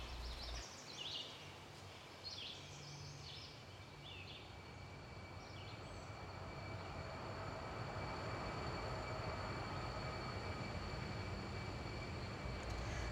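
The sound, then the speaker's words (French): A train rumbles past on the railway running alongside a park, a dense, steady roar building over about thirteen seconds, with thin high tones and bird chirps faintly above the noise. “Dans cette section du parc, celle qui longe la voie ferrée”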